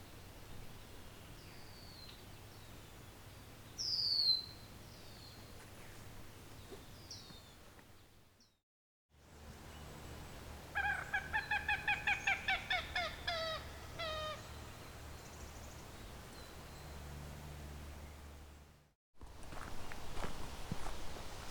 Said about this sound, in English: so we got a common gallinule. Very loud marsh bird. A very, very loud marsh bird. Not something I've really encountered much before. As much as the name says common, around these parts it is not very common.